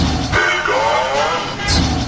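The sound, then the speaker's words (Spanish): A gas delivery truck's street call: one drawn-out, sing-song cry that slides downward in pitch, loud over steady, noisy street rumble. “del mundo existen muchísimos tipos de gritos, como el grito del gas,”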